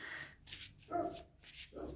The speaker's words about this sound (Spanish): Espero que no escuchen a Frodo ladrando.